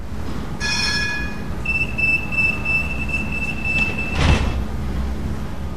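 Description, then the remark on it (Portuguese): A surface metro light rail tram in Laranjeiro, Portugal, rolls along its tracks with a steady low rumble, a sustained high metallic squeal from the wheels, and a brief clatter near the end. “vou apanhar um metro porque vai sair daqui a nada”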